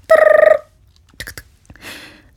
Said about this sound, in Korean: 이때 전화가 걸려옵니다.